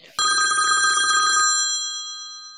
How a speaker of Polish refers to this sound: A, czekaj, ktoś dzwoni. Czekaj, słyszysz jak dzwoni? Tak. A jak dzwoni? Jaki dźwięk dzwonka słyszysz?